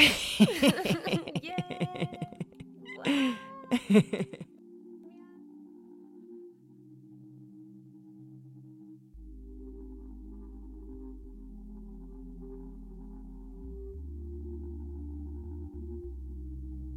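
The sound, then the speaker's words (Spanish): Two people imitate a cat's meow together after a count of one, two, three, as the show's closing ritual, in a few loud, wavering vocal bursts, followed by a brief spoken word, then a low steady hum of music fades in. “Em, no, a- este show siempre terminamos con un miau.”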